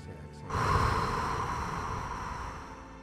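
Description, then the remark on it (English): A single long breath drawn in through the nose, held for a moment and then exhaled, an airy rushing sound that swells quickly after a brief quiet start and then tapers off slowly. No one speaks. “When you're ready and comfortable, you can close your eyes and take a deep, conscious breath. Breathing in through your nose, holding it for a moment, and exhaling.”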